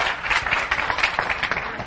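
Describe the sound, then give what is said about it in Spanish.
An audience claps twice on a speaker's call, a brief, dense burst of overlapping hand claps, fairly loud and steady for under two seconds, with no speech on top. “el que me escuche, dos aplausos.”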